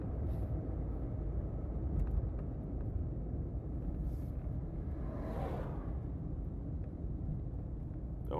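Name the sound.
car braking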